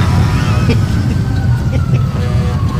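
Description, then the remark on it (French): Heavy trucks rumble past outside an open window at the Carnaval de Québec, a loud, continuous low roar of engines and road noise with faint higher tones drifting over it, with Bonhomme audible behind the trucks. “Ouais, on entend bonhomme derrière les camions.”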